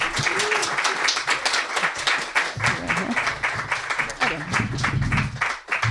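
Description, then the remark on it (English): Sustained applause from an audience at a book reading, welcoming author Keith Gessen: dense rapid clapping for several seconds at a steady, fairly loud level, with faint voices murmuring underneath. “Let's give a hell of a warm applause to Keith Gessen.”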